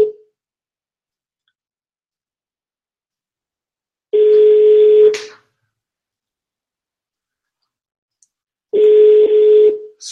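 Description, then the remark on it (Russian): Telephone line tones sound over a call to a company, made to ask to be put through to the head of the sales department: two steady, fairly loud beeps about a second long, separated by several seconds of silence, with no voices. “я позвоню этой девушке и попрошу переключить на начальника отдела продаж”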